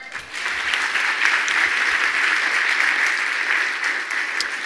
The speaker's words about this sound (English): Amen? Amen. Amen. Get a Lord a hand clap.